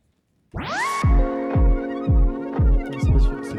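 An electronic dance track starts with a rising synth sweep, then a steady four-on-the-floor kick drum thumps under sustained synth chords, loud and up front with no voices.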